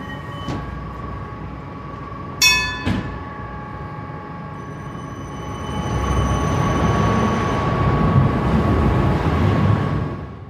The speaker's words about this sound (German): fährt eins von 42 Tram, wo Bernmobil am Morgen auf die Schiene schickt. 16 von diesen Kursen fahren vom Depot vom Eigerplatz aus los.